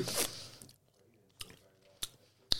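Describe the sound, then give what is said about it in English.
An airy slurp as a high-tannin, high-acid wine is drawn in through pursed lips to taste it, followed by quieter mouth sounds and three sharp, spaced lip smacks while the taster swishes it around. “Okay, I'll, I'll slurp.”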